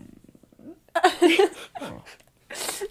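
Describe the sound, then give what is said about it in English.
A dog named Chewy sniffs right up against the microphone, making a few loud, snuffly bursts of breath after a soft low rumble at the start, with no one talking. “But oh, Chewy just did a little sniff on the microphone.”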